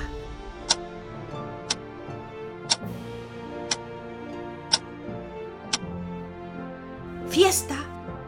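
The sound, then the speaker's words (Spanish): A clock's second hand ticks six times, one sharp click per second, over a steady tonal background hum, ending with a brief louder rustling burst. “creyó oír el segundero del reloj.”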